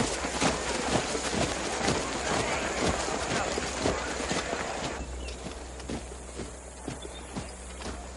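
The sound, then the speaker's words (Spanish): Colonel Munro's horse's hooves clip-clop at a steady walking pace on a soft forest path as the British garrison crosses a small clearing, regular thuds with a dense rustling background and possible faint voices beneath. “El coronel Munro va a caballo.”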